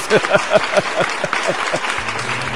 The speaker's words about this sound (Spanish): Aplausos para esa pinche frase filosófica del señor Don Lucho y su pandilla, mejor conocidos como los pinches demonios.